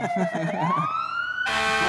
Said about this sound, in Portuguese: Tocou a sirene.